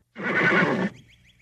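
A horse, Mr. Ed, neighs once, a loud, shaky whinny lasting under a second, followed by faint high chirping in the quiet background.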